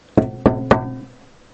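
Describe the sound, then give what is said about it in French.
Three soft knocks on a door in a steady, unhurried rhythm, each with a short wooden resonance that fades away. Moderately quiet, with no voices. “Non, il va frapper doucement à la porte.”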